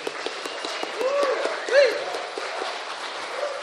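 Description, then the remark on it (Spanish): An audience at a live show in the Sala Julián Garrillo, broadcast live on 96.1, applauds steadily, a dense wash of clapping with a few sharper claps standing out and scattered whoops and cheers rising and falling over it throughout. “Este aplauso es para la gente que nos está escuchando en el 96.1 y que no pudo venir.”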